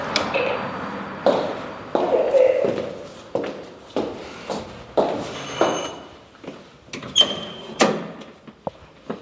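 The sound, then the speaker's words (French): A door is opened with a latch clunk and knocking handling sounds, followed by a steady series of footsteps moving through a quiet, echoey space, entering the first-floor offices of the Expat Communication agency. “Premier étage à droite. Merci. La porte est ouverte.”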